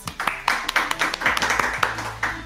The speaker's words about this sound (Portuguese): Palmas para nós.